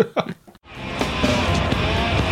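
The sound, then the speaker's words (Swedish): After a brief sound and a short silence, the engine of an enormous car rumbles in loud as a character arrives in it in Buffy, settling into a steady, heavy roar. “Jag tyckte nog nästan ett av de bästa, men det var väl kanske inte så mycket dialogen som, som eh, kommentaren när han kommer i den där enorma bilen.”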